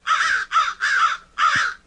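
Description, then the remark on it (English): A crow caws four times in quick succession, harsh and loud, with short gaps between each rasping call and no other sounds around it. “You know, when you told me you had a little sound effect to play for me on this podcast.”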